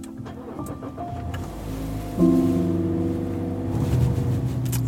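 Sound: car driving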